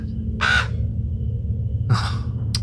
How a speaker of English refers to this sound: a damn bird.